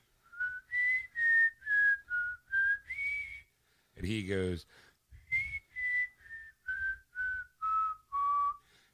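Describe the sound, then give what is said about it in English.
A person whistles a short tune of about six clear, steady notes as a secret signal to have a door opened, pauses for a brief spoken phrase, then whistles another run of similar notes that gradually drop in pitch, fairly loud. “like there's there's some sort of secret it's, whistle.”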